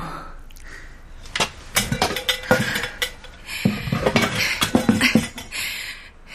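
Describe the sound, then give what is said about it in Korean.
Old metal pots and household kitchenware clatter and clink as someone rummages through them, a run of irregular knocks and scrapes with short pauses between, no voices. “이렇게 낡은 냄비며 살림살이가 다 무슨 소용이라고.”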